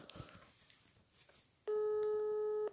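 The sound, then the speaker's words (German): After a moment of near silence, a loud, steady electronic telephone tone sounds once for about a second, the buzzing ring of an outgoing call to a mobile phone going unanswered. “Diese unfähigen, unterbelichteten Menschen gehen auch nie ans Handy.”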